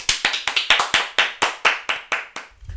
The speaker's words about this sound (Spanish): Un aplauso a Ángel Martín.